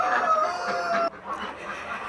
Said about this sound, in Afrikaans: So ek is gek oor 'n hoender se kraai.